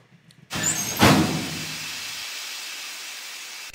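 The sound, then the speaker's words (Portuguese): A sauna door shuts with a solid thud, followed by a steady, loud hiss of steam that fills the rest of the moment without fading. No voices are heard. “a gente quer prender essa pessoa na sauna e deixar ela fervendo lá.”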